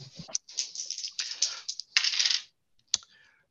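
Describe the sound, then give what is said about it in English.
Dice are rolled in a game and clatter and tumble across a hard table in a rapid burst of sharp clicks lasting a couple of seconds, then settle on snake eyes; a single final tap follows after a brief pause. No voices. “Snake eyes.”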